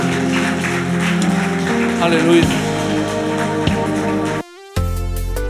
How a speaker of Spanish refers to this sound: Si recibiste, dale un fuerte aplauso al Señor en esta mañana y bendice su nombre.